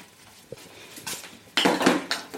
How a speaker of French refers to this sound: Qu'est-ce que tu viens de mettre dans la casserole, là Il y a plein d'épices.